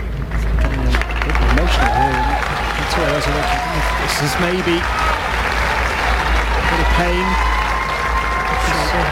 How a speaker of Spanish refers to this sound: Empieza a llorar, la gente le aplaude y oyen a la juez cuando baja a la pista para preguntarle qué le pasaba porque la, tenista rompe a llorar en mitad del partido.